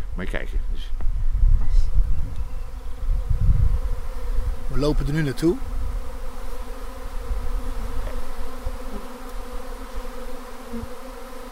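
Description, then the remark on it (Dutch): A dense swarm of honeybees, settling on a post and the trunk of a tree, hums steadily throughout, with individual bees buzzing around; a voice speaks briefly early on amid outdoor rustling. “Maar ze, dus ze, vliegen ook om je oren als je daarbij bent.”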